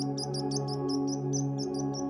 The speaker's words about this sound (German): Nur leises Zwitschern ist hin und wieder aus der Ferne zu vernehmen.